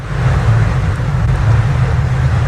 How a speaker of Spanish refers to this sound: Estamos en Brasil, al sur de Río de Janeiro, en la famosa playa de Copacabana. Mientras las olas rompen sobre la arena, los coches se mueven en paralelo al paseo marítimo que está plagado de chiringuitos.